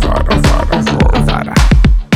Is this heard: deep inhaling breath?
no